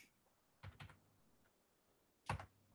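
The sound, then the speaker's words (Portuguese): A few quiet keystrokes on a computer keyboard: a quick pair of taps, a pause, then a louder cluster of clicks near the end, with no voices and only a faint background hiss. “Ouvindo os supercomputadores aí estão anotando tudo, é, né?”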